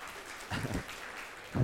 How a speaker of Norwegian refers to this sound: Vi kan klappe for han òg.